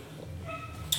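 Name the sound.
dog whimpering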